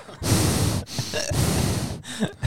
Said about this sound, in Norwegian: Skal du puste sånn inn i mikrofonen i hele dag, eller?